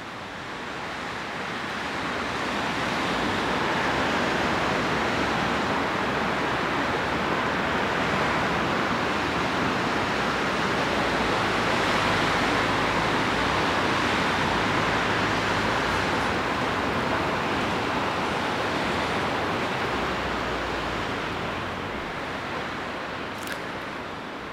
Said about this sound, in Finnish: No niin, syksyinen luontoilta käynnistyy tässä ja syysmyrskyn äänin tämä äänite on myrskytuuli Salpausselän harjulla